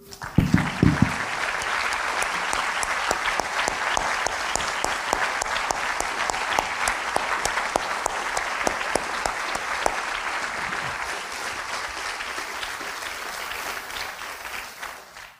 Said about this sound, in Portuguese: Você só pode conhecer verdadeiramente a Deus por meio de Jesus. Podemos aplaudir o nome dele?